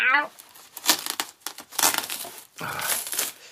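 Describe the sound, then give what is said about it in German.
Paper crinkles and rustles in a series of uneven bursts as a heavily taped, paper-wrapped package is unwrapped on a table in a reading corner, with a short tearing sound. A voice briefly sounds at the start and again near the end. “Es ist in Papier eingewickelt.”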